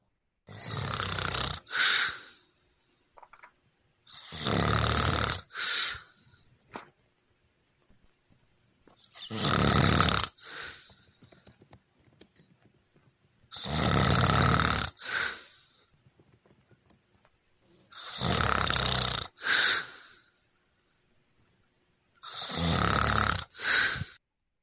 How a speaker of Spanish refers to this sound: voy a poner el eh, eh, audio de Marta Ponce, que envió los ronquidos de su papá